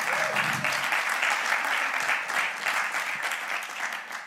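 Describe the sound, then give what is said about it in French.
Sustained audience applause for a performer after his performance, a dense steady wash of many hands clapping at once, holding loud for several seconds and tapering slightly near the end. “On peut l'applaudir.”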